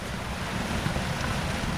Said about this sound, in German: Plötzlich flutet daraus Wasser in einen riesigen länglichen Sandkasten, der durch die gesamte Halle führt. Das Wasser formt im Sand eine Rinne und fließt in Kurven weiter, so wie ein natürlicher Fluss in der Landschaft.